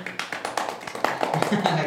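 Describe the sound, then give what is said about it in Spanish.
Brief applause from a small group welcoming a speaker being introduced, quick irregular claps overlapping into a steady patter at moderate loudness, with faint voices murmuring underneath. “Un aplauso.”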